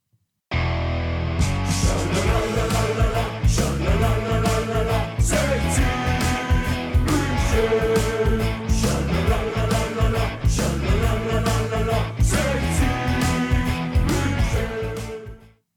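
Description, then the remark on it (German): A football fan anthem plays loud and steady, a full band with punchy drums driving a regular beat, filling the whole stretch without a pause before it cuts off. “ich glaube, wir können es jetzt trotzdem mal einspielen, die Musik.”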